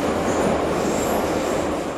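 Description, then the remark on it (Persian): A subway metro train rumbles steadily, a dense continuous roar of wheels on rails with faint high-pitched squeals riding above it, and no one speaking, during a metro ride to 15 Khordad station. “پس ما با رعایت پروتکل‌های بهداشتی با مترو رفتیم و ایستگاه 15 خرداد پیاده شدیم.”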